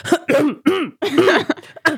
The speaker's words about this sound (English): just all of a sudden I needed to clear my throat for no reason.